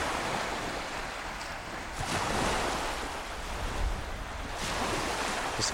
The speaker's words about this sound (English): couple of gulls going over the sea, lapping at these seaweed strewn rocks. And, uh, this empty strand of shingle. Nobody around.